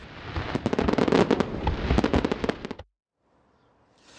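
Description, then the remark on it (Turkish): A rapid, dense barrage of fireworks crackling and popping for nearly three seconds, loud, then stopping abruptly into quiet background noise; a fireworks show at a conquest anniversary festival, ending near midnight. “Fetih şöleni ve havai fişek gösterileri saatler sokağa çıkma yasağının başladığı gece yarısına yaklaşırken sona erdi.”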